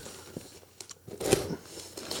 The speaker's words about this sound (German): Das erste Klebeband ist gerissen. Das erste Band. Das zweite das Klebeband zweite. reißt. Das dritte Klebeband folgt